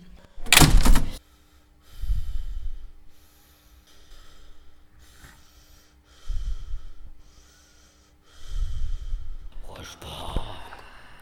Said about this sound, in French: La porte du sous-sol se ferme.